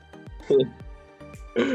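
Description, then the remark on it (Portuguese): A voice imitates a mechanical, robotic cough: two harsh, buzzy hacking bursts with clicks between them, fairly loud. “Robô que tosse, muito bom.”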